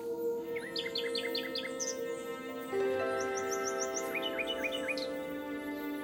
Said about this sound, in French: As-tu entendu cette mélodie C'est le doux chant du rossignol. De la taille du double décimètre de nos trousses d'écolier pour le poids d'une prune, le rossignol philomèle est un chanteur hors pair mais aussi roi du camouflage.